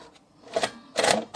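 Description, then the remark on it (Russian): A4 paper is wound out of a braille writer after writing: dry mechanical rattling in a few short bursts, with a louder churning stretch near the end and quiet pauses between. “Написали, выкручиваем.”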